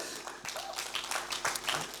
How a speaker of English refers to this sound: Come on, let's give mums and wives a big clap this morning.